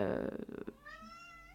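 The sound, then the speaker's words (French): A cat meows, a loud drawn-out cry for the first half second or so, then a thinner rising-and-falling meow trails off more quietly. No one speaks. “Oh, c'est le chat désolé il faut que j'aille lui donner des croquettes, je reviens.”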